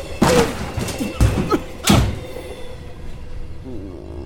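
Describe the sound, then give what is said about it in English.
Three heavy thuds land in quick succession as a person is thrown from a moving train, followed by a low, steady rumble that fades out. “That's no way to exit a moving train, my boy.”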